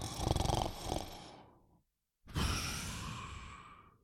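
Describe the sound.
Two loud snores from the wolf lying in bed in a telling of Little Red Riding Hood, a rumbling, rattling breath followed after a short pause by a long, airy second one, likely a person imitating heavy snoring with no other talk.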